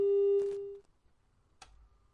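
A steady telephone busy tone after a dropped call hums loudly for under a second, cut off by a click, followed by near silence and another short click of line noise.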